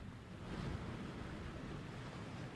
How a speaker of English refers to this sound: It seemed hard to imagine the water coming over that break wall behind us. But now you see what is happening here.